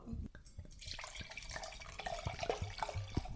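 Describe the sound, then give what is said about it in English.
Wine pours steadily into a glass, a bright trickling gurgle with small clinks and drips, with faint voices in the background. “So as you pour this glass of wine, this looks very reminiscent of almost a ribena.”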